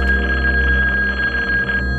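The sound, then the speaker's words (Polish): A telephone rings loudly and steadily as a call is placed to the police, its buzzing bell tone held without a break for about two seconds, with no voices. “Następnie dzwoni na policję.”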